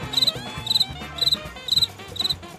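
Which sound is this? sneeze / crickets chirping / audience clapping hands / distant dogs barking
crickets chirping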